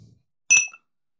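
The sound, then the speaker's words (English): A single bright, crisp clink of glasses touching in a toast, with a short high ringing tone that fades within a fraction of a second. “Well, producing a clink, producing a clink.”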